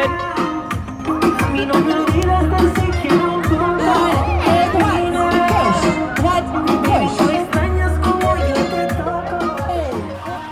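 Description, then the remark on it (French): Loud, upbeat dance music plays continuously for a Zumba class with a dance choreography in Korea, driven by a steady thumping beat, a pulsing bass line and bright melodic layers, filling the whole stretch without pauses. “il y a une choré de danse, donc euh, ils font entrer euh, le public”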